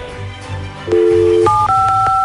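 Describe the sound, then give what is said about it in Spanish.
Telephone keypad tones as a phone number is dialed: three or four clear two-pitch beeps in quick succession, loud, over a faint low background hum. “Quédate en la línea telefónica, no te vayas”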